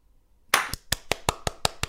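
After a short silence, brief applause for the listeners: about nine sharp, steady claps in an even, fairly quick rhythm, crisp and moderately loud, with no voices.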